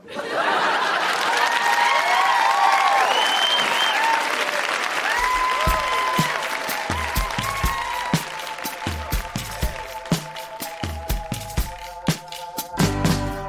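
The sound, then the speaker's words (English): A large audience at the live reading show Grown Ups Read Things They Wrote as Kids breaks into loud, sustained applause with some cheering for everybody who read, then the clapping gradually thins out into scattered individual claps toward the end. “Huge round of applause for everybody who read tonight.”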